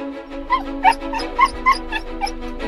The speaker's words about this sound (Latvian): Suns droši būrī auto aizmugurē. Šoreiz par braucienu satraucies, varbūt mana klātbūtne traucē.